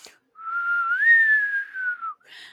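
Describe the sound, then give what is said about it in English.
A person attempting to whistle makes a single drawn-out whistle, starting low, bending up in pitch, then slowly sliding back down over about two seconds, with a breathy puff of air at each end. “That's when uh, an old West sheriff clanks out in the middle of the uh, street and it's like, I can't whistle.”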